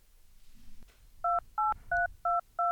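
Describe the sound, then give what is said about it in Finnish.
Five short, evenly spaced touch-tone beeps from a phone keypad, each a steady dual-pitched tone, ring out loud and clear over faint background rumble as a number is dialed to call Jussi Jokinen in Switzerland. “Kokeillaan, painapas sieltä, sieltä soita. Pistetään puhelua pyörimään.”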